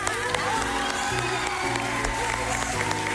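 Loud, sustained applause from a large audience, with cheering and scattered whoops rising over continuous clapping, a dense crowd roar filling the whole moment.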